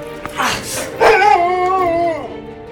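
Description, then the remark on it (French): An agitated dog named Roy, attacking its master, gives a rough growl that turns into a drawn-out, wavering whimper, rising and then trailing off, loud and fairly continuous over a couple of seconds. “Nous aurions sans doute été exposés nous-mêmes à un grand péril si l'arrivée et la voix de Bennett n'avaient instantanément ramené le chien à la raison.”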